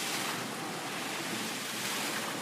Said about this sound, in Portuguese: Será que a água não cansa, não? Não? Porque é água. Ah, é porque é água, tá bom. A água não cansa porque é água. A gente fica alguns minutos ali desfrutando da fonte de água